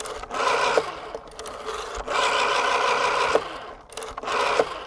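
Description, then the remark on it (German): A rotary telephone dial is turned and whirs back several times, mechanical buzzing bursts separated by short pauses and small clicks, with no voices. “das Geräusch der Wählscheibe vom Telefon, wenn man die analoge Welt verließ.”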